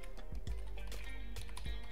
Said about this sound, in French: mot de passe, c'est fou, hein j'arrive plus à parler une fois que je tape au clavier.